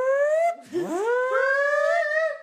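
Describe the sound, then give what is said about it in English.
A loud emergency broadcast warning siren wails alone, holding a steady tone, then dropping sharply in pitch before sweeping back up and sustaining its rich, buzzy wail, announcing the commencement of the annual purge. “This is your emergency broadcast system announcing the commencement of the annual purge.”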